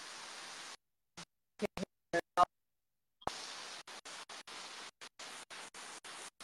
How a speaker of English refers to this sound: Yeah, it's actually water. It sounds like static, but it's actually water.